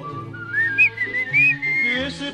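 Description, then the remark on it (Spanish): Someone whistles a short tuneful melody of a song, with sliding, wavering notes rising and falling over a steady low hum, fairly loud for a couple of seconds. “Eh, así, eh, así no es el chiflido.”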